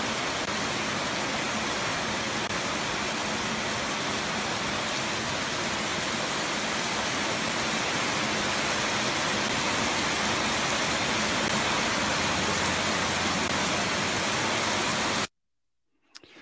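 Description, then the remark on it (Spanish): Steady, dense rain hiss fills the air for about fifteen seconds, a broad constant wash of rain falling in Campo de Sion, Mexico, with no voices, then it cuts off abruptly into silence. “Hermanos, está lloviendo en campo de Sion.”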